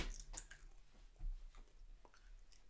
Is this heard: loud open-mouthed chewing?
yes